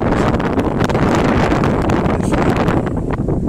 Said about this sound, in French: voilà on marche un peu, on entend un peu le vent, on vient d'écouter, euh, il y a du vent aujourd'hui un petit peu.